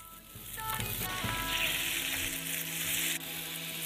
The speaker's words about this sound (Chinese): 说回到蜡笔小新啊，蜡笔小新里面的这个汉堡肉排呢，好像是这个小新最喜欢吃的食物，在动画里面也出现了很多次。来听这个油滋滋的声音